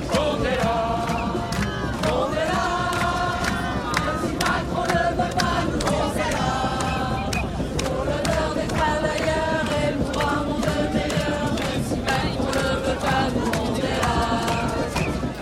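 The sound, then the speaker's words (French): A large crowd of Gilets jaunes (yellow vest) protesters chants the Gilets jaunes song in unison in the middle of the Place de la Madeleine, loud and sustained, many voices rising and falling together in repeated rhythmic phrases with no pause. “Désemparés par la situation, avec l'impression de s'être fait balader toute la journée en vain et une furieuse envie de produire quelque chose, on occupe spontanément le milieu de la place et on entonne le chant des Gilets jaunes.”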